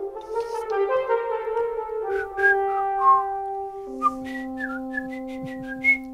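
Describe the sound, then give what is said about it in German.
A man whistles an opera melody of short, gliding notes over sustained, droning low tones that sound like accompaniment. The whistling is clear, with no talking. “Ich glaube, das pfeift er.”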